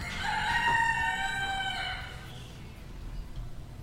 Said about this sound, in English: Good morning, folks. I think you all heard that uh, rooster caw. That's how we're going to start all the podcasts these days.